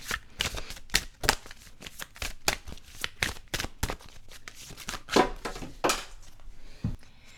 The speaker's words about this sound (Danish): Og nu øh, larmer jeg nok lige lidt her i baggrunden. Fordi så blander jeg lige kortene her og ser, hvad der kommer til os.